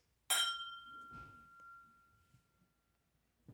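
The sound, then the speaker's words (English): Two whisky glasses clink together once in a toast, bright, and a clear ringing tone lingers and slowly fades over a few seconds, followed by faint handling noises. “Anyway, cheers. Cheers.”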